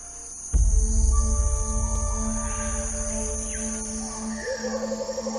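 Dense Amazon rainforest night ambience: steady insect and cricket drones layered with animal calls and a deep rumbling cry at the start, plus a brief warbling bird call near the end.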